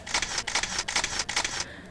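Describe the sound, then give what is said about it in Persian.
A camera shutter clicks in a rapid series of crisp, bright mechanical snaps as a photographer takes a person's portrait, grouped into about four short bursts with brief gaps, then stops. No one speaks. “چشمتان به دوربین باشد تا سه می شمارم مواظب باشید حرکت نکنید و الا عکستان بد از آب در می آید حاضر یک دو سه”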